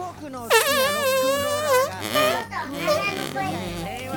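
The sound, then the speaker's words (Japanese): A voice blows a long, buzzing mouth fart imitation, an entry in a mouth-fart contest, lasting over a second and wavering in pitch, followed by a shorter sputtering burst mixed with playful vocal noises, fairly loud. “おならの声聞こえる”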